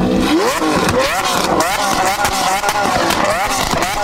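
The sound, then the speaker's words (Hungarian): A loud car engine revs hard again and again, its pitch sweeping upward in repeated climbing surges, cars accelerating in illegal street races. “bekeményítene a Párbeszéd az illegális gyorsulási versenyek miatt”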